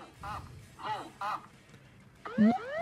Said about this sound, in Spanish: Es la alarma de cuando el avión está a baja estatura.